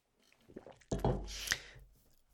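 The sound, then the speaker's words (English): Someone takes a drink of water: a faint wet slurp, then a louder gulp and swallow lasting about a second, with no talking. “Before I go into this last section here, I, I want to put a disclaimer out there after I take a drink of water.”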